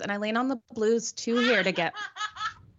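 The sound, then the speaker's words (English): A phone text alert for a text from a daughter plays a short recorded giggle, a burst of high childlike laughter that overlaps someone talking. “my daughter is obviously texting me. That's who giggles on my phone when it does that.”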